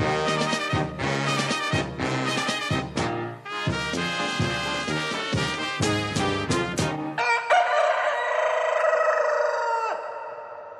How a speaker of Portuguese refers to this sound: E o galo que a gente não falou hoje, hein, papai?